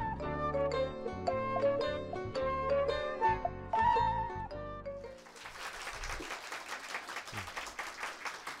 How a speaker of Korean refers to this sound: 제가 나오니까 자연스럽게 박수가 나오네요.